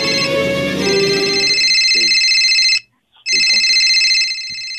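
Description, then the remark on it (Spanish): A cell phone ringtone chimes loudly and steadily in bright electronic tones, breaks off briefly, then starts ringing again, while muffled voices murmur underneath at the start. “Si en este momento suena tu celular y miras que es tu ex, ¿contestas o no?”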